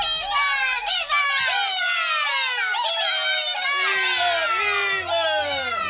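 A dense crowd of high-pitched warrior ant voices shouting and cheering excitedly, nonstop, as the ants carry others on their backs back and forth; overlapping continuously for the whole stretch, loud with no pauses.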